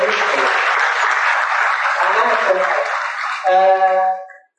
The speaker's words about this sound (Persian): تشویقش